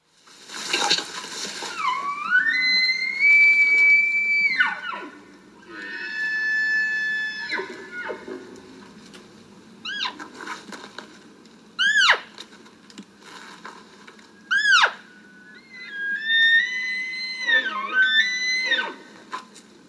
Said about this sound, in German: Aber dieses Pfeifen, das, das kann ich nicht. Das ist mir auch zu hoch, da komme ich nicht hin. Pfeifende Hirsche. Es geht um pfeifende Hirsche. Es geht um die Maraljagd im Altai-Gebirge in Kasachstan